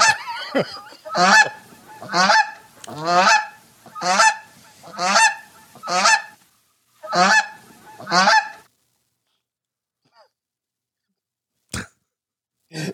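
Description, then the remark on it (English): A goose honks loudly about eight times in a steady, rhythmic series of harsh, nasal calls, then falls silent apart from a couple of brief faint knocks near the end. “Well, let's go back and see what the goose is doing.”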